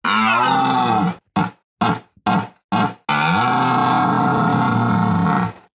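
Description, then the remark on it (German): A deep, throaty animal bellow like a rutting deer: one long roar, a run of short choppy grunts, then another long drawn-out bellow, loud, with no one speaking. “Herr Hirsch, Ihre Kritiker behaupten, Sie wirken unabsichtlich komisch, weil Sie sich immer so aufplustern. Was antworten Sie denen?”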